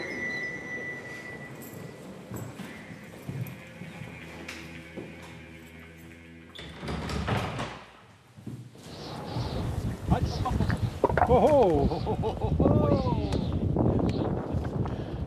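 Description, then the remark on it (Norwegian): A group of archaeologists outdoors in the mountains between Lom and Skjåk, Norway, at nearly 2000 m altitude, bursts into excited cheering and shouting on finding an 800-900-year-old horseshoe in a scree field. The voices rise loudly over gusty wind noise on the microphone after a quieter, breezy stretch. “Sånn høres det ut når en manngard av arkeologer finner en 800-900 år gammel hestesko i steinura på nesten 2000 meters høyde.”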